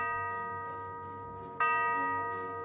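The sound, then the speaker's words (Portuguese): A clock chimes midnight with a resonant, lingering tone, then strikes again partway through, the fresh stroke swelling over the fading hum of the last. Clear, with no voices. “Quando virou meia-noite, Clara foi arrancada de seu sono pelas badaladas do relógio.”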